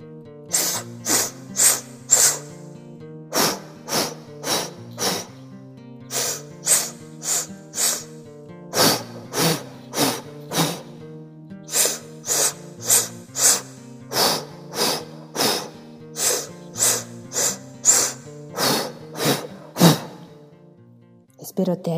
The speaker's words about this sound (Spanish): Vamos de nuevo, vamos a respirar.